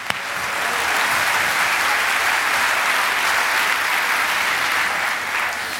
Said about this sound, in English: Will you thank the rest of them, please, and send them away with a big round of applause?